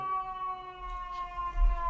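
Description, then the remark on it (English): A fire truck siren passes outside, sounding a steady, moderately loud wailing tone whose pitch sags slightly as it goes by, over a low engine-like rumble, with no one talking. “Actually, that sounds like a fire truck.”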